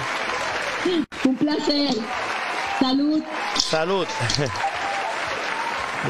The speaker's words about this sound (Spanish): Así que me despido con este aplauso.